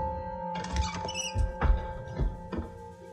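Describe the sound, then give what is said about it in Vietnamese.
Someone opening the door of a woodshed: a handful of muffled clunks and scraping rattles spread over a few seconds, over a steady low hum with no voices. “y điên nghe thấy tiếng động như có người mở cửa”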